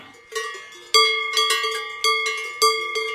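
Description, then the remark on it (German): Bells clanking on cows grazing peacefully and chewing cud in Switzerland. A series of bright metallic rings with strong overtones, struck irregularly about every half second, each ring decaying into the next, with no voices. “wenn man die Kühe mit Glocken friedlich weiden und auch wiederkauen sieht, was ein Zeichen für Wohlbefinden ist, kommt man zum Schluss, dass die Glocke die Kuh nicht stört.”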